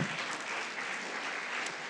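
Steady audience applause at the Pordenone Legge festival, a dense crackle of many hands clapping at an even level for the whole stretch, with no voices standing out above it.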